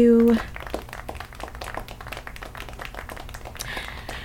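A short steady tone gives way to a round of applause, many hands clapping in a dense, crackling wash that holds fairly even for about four seconds.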